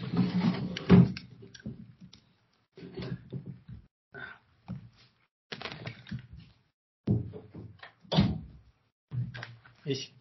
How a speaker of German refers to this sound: Ähm, und ganz kurz, ich möchte hier, ich bin ganz, ich möchte nur die Tür zu machen.